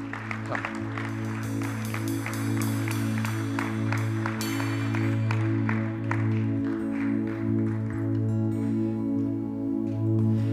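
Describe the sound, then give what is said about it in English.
An audience applauds two people coming up on a stage to be baptized, with dense, steady clapping for about eight seconds that then thins out, all over held, droning musical chords that continue underneath to the end. “So why don't you give these two a round of applause as they come up on the stage?”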